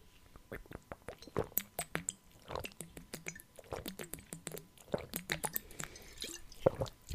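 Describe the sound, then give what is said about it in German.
Sipping and swallowing of water, a rapid series of wet clicks, gulps and small liquid sounds in an irregular rhythm, with no talking. “Ich habe noch immer keinen Schluck Wasser getrunken wegen der Nuss, aber naja, Prost.”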